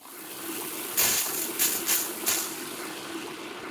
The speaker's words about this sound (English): I'll just wash myself off over here, and maybe I could trouble you for a glass of water.